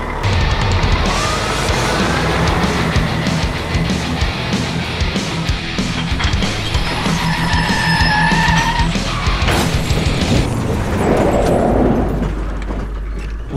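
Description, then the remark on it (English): A loud truck engine roars at speed, tires screeching and skidding in drawn-out squeals, with rumbling and crashing noise throughout, intense, without any talking. “Or oh, f it, this truck would really get his freak on. Okay, let's see what this baby can do.”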